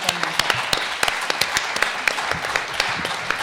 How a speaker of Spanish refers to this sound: ¿Nos sigue? Sí. Un aplauso